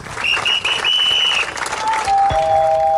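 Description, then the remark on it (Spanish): A crowd of Argentine passengers on a full airplane claps steadily and loudly for three seconds as the plane lands, with a high whistle-like tone early on and lower steady tones emerging near the end. “Cuando aterriza, todos aplauden.”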